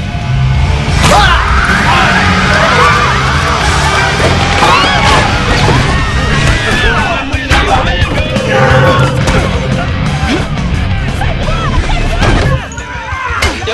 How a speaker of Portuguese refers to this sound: Ele simplesmente dá uma porrada na caixa de energia do lado, pá! Desliga a luz do bar. E aí começa a porrada.